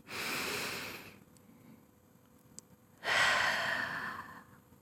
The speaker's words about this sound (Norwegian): Så da puster jeg rolig, sånn at eh, både mor og far hører min pust, og så puster de også rolig.